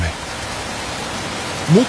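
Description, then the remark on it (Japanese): Heavy rain pours down in a steady, dense hiss that fills the whole moment, with a brief voice rising faintly near the very end. “晴れのち雨雨のち大雨大雨のちもっと大雨”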